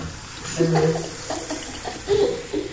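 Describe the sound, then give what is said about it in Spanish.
Water runs steadily from a tap into a kitchen sink, a continuous hissing splash with small bumps of dishes being washed, with faint muffled voices in the background. “este momento se está lavando en la cocina, en la taza.”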